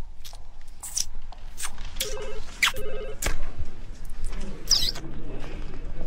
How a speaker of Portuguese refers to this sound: Você não sabe chupar bala sem fazer barulho, meu? Aposto que você tá fazendo isso só pra me irritar, meu.